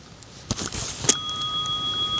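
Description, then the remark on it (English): A meditation app bell strikes once, marking the end of the selected meditation time, and its clear, high ringing tone sustains steadily to the end, after a brief burst of soft rustling. No one speaks. “So it just rang to tell me that my meditation time is over.”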